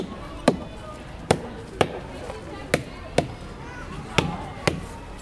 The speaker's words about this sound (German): Mit sicherer Hand schlägt Markus Güdel auf jeden Stamm zweimal drauf. Er und der Dominik Christen hören aufmerksam, wie es tönt. Mit der Erfahrung hört man dann schon, ob etwas könnte nicht stimmen oder nicht.